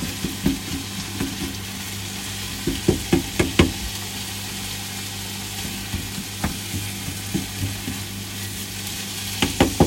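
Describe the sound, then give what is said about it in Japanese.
Ingredients seasoned with sake, soy sauce and fish sauce sizzle steadily in a hot frying pan as they are stir-fried, with a constant hiss broken by sharp clacks and taps of a utensil scraping and knocking against the pan. “炒まったので一回この具材をお皿に移しますジュージューいってます”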